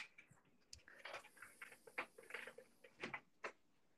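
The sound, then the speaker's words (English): A door being moved, heard as a quiet series of irregular knocks, clicks and brief scraping rattles over about four seconds, with no one talking. “I move this door.”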